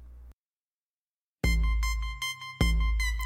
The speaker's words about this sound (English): Okay, let's just take a listen to the to the song here.